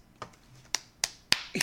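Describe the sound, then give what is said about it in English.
Four or five sharp hand claps at an uneven pace, the first softer and the rest crisp and bright, with no one speaking. “This is a clap. I just that that sound is a clap.”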